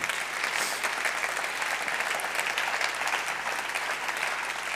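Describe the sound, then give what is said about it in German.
An audience applauds a woman once more during a sermon, a dense, even patter of many hands clapping at once that holds at a constant level throughout, with no voices heard. “Ja, gebt ihr nochmal einen Applaus.”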